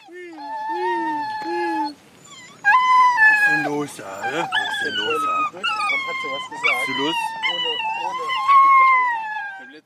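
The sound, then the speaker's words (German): Several hunting dogs wearing small bells howl and bay together during a driven hunt, in long, wavering, overlapping cries that rise and fall, loud, continuing without pause through the whole stretch. “Damit die SchützInnen wissen, wann sich ein Hund und kein Wild nähert, bekommen die Hunde kleine Glöckchen umgehangen”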